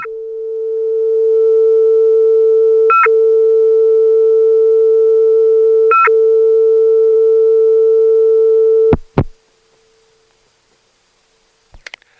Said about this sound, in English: I have no idea what this device is, but isn't it nice to be able to hear the tone with no digital fuzz, thanks to the analog connection downtown?